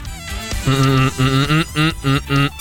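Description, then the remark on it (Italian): A man hums a short tune with his mouth closed, a song from a record that listeners must guess: about five sustained, steady notes separated by brief pauses, moderately loud, with no words spoken. “lo facciamo come al solito a bocca chiusa con il nostro estroso cantante a bocca chiusa”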